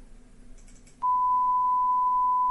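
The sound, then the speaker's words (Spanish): A loud, steady censorship beep at a single mid-high pitch cuts in abruptly after a second of quiet murmur, covering a word said about politicians, and holds unbroken to the end. “Sí, sí, voy a- vamos a poner el pitido.”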